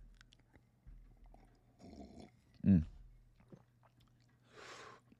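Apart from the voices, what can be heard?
slurping hot tea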